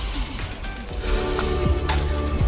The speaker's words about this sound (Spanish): Vamos a ver si podemos escuchar cómo cae el agua en este momento.